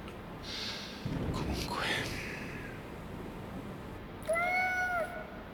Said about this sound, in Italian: Sì, gatto, lo so, lo so che hai fame.